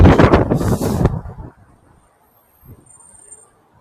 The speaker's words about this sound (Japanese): 風の音ごめんなさい。